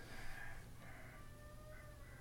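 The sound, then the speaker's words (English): Faint chickens clucking at a neighbor's house next door, a few drawn-out, warbling calls in a row over a low background hum, with no one talking. “I have chickens next door at my neighbor's house and they're kind of distracting me right now.”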